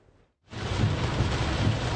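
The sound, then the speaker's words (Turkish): After a short quiet moment, heavy rain starts abruptly during a march started by Turkish bar associations. It keeps up as a loud, steady hiss with a deep rumbling underneath. No one speaks. “Şiddetli yağmur altında yürüyüşünü elinde şemsiyesi, üstünde cübbesiyle sürdüren Giresun Barosu Başkanı”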